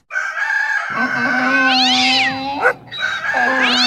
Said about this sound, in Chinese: 他们同时发出自己的叫声，就像乐队突然开始演奏一样。四种动物的叫声夹杂在一起，听起来非常刺耳。